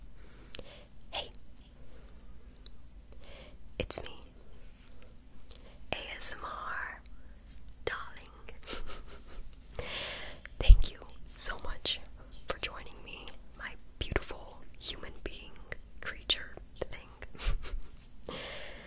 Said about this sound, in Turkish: Hakikaten bir hani merak eden varsa e, mesela şimdi uykuya yardım eden bir ASMR izleyeceğiz. Şey dinleyeceğiz. Bak şimdi.